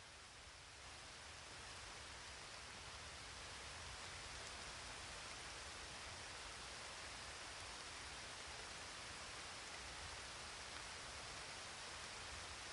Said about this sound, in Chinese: 外面下雨了。当你听到雨声的时候，觉得自己的身体开始慢慢放松了。